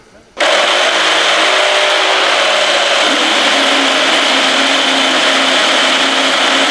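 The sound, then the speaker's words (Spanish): A Formula 1 car engine bursts in abruptly and holds a loud, high-pitched, buzzing roar, its tone shifting slightly partway through as it keeps running without a break. “Eso es el Alpine, no sé. Sí, señor.”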